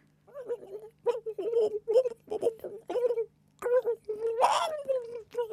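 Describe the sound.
A person imitates a turkey gobble, replayed from the previous week, with a string of warbling, throaty vocal bursts, six or so in quick succession, fairly loud, the last ones rougher and more strained.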